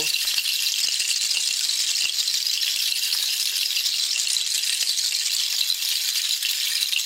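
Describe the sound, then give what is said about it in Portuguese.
A leafy chakchas ritual rattle is shaken steadily and continuously in a purification ritual, a dense, bright rustling swish that stays loud throughout with no pauses and no voices. “Permita que o barulho das charchas do chacoalho limpe seu campo energético.”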